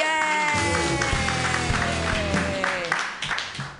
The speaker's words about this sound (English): Everybody clap wildly for